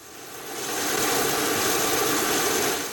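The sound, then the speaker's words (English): A plane refueling with sustainable aviation fuel on the tarmac at Telluride Regional Airport: a loud, steady aircraft engine roar, swelling in over the first second and holding as a broad, hissing drone with a high whine. No voices. “It might be hard to tell, but that's the sound of a plane with lower carbon emissions.”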